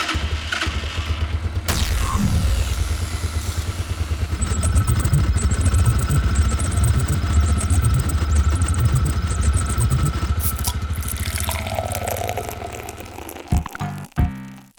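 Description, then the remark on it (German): A small pull-start engine, freshly dusted, fueled and oiled, catches after a yank of the cord, then runs loud and uneven, sputtering and rattling for several seconds before coughing a few times and cutting out. “Er ist schon abgestaubt, vollgetankt, alles klar, geölt und ich zieh da mal an der Schnur.”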